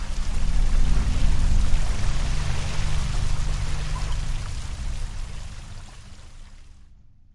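Water splashes and churns steadily for several seconds, a dense, full wash of sound with no voices, gradually softening before cutting off near the end.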